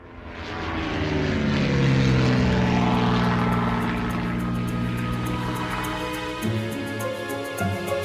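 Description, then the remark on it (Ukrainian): A propeller airplane engine drones loudly, swelling over the first couple of seconds into a steady, throbbing roar that holds to the end, with no voices. “Аби переконатися в цьому, я мушу сам піднятися на борт літака.”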